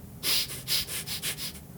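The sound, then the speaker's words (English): A person imitates a mouse poking its nose through a door and sniffing the air, with a quick, rhythmic run of about seven short, breathy sniffs through the nose, hissy and fairly soft, with no talking. “So you uh, give it give the whole air a real real good sniff”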